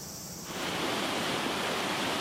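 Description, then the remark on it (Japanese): Steady, dense rush of flowing water in the Kojirakawa Gorge, listed among Japan's 100 selected famous waters, heard in the morning, like a stream tumbling over rocks, swelling in after a brief quieter moment and then holding constant. “今朝は名水百選小白川渓谷の涼しげな音色”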